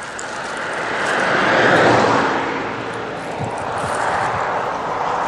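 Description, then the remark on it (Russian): A car passes by, its broad rushing road noise swelling to a peak and easing off slightly, then lingering at a steady level, with no voices. “Так, сейчас подождем машину.”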